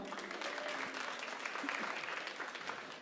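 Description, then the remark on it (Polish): An audience claps together in a dense, steady wash of applause that continues without a break for several seconds, with no voices standing out. “wielkie brawa.”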